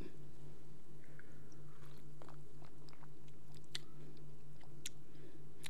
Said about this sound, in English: I got my little martini or whatever, my little martini glass, because I want to feel like I'm drinking a martini, a lychee martini. Um, so I hope, hopefully, it tastes good. Let's pour it up. For a sip.